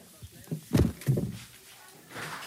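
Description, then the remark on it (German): A door is opened quickly with a sharp handle click followed by a couple of dull wooden thuds, then a quieter shuffling rustle as it settles. “Bleib dran, ich muss die Tür aufmachen und zwar schnell.”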